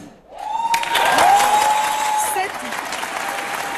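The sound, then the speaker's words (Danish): An audience at a prize ceremony breaks into dense, steady applause for Justine Trier's acceptance speech. The applause swells quickly and keeps going at an even level, with a high sustained cheer or whistle riding over the clapping for the first couple of seconds. “Ja, der bliver klappet.”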